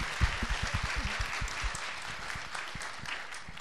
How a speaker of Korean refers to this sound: 응원의 박수 한번 부탁드리겠습니다.